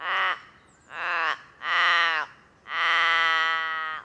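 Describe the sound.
Four deep, drawn-out caws of a Forest Raven, a raven of Tasmania, loud, separated by short pauses, the last call the longest and most sustained. No one talks over them.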